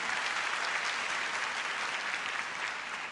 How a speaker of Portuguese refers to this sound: Aplauda o Senhor por isso, pela fé que Ele vai fazer em nossa família. Mas aplauda mesmo.